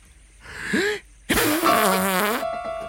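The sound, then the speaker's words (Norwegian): Two fart sounds: a short buzzy one, a brief pause, then a longer, louder, sputtering blast with a raspy tonal quality lasting over a second. “Men ble svenskene redde av din lille ja, ja, ja. fis?”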